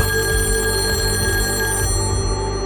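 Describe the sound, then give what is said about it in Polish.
A telephone rings at the police as a woman calls in after a TV crime programme in September 1988. It is a loud, continuous metallic bell trill that holds steady for nearly three seconds, with bright overtones and a low hum beneath. No one speaks. “Po emisji na policję dzwoni kobieta.”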